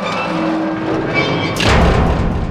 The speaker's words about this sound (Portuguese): A porta que vocês abriram se fecha, onde estava o carneiro.